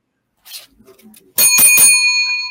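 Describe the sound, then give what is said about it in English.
A bright bell rings out sharply with a couple of quick strikes, rung to mark a correct answer in a quiz, its metallic tone ringing on and fading slowly, preceded by some faint soft rustling. “Dang, I was wondering if you'd ever get the bell run for you”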